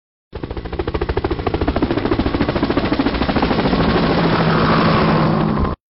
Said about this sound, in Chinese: 听完了托托汇报的紧急救援队出发了。只见一架架急救直升飞机飞向了石头岛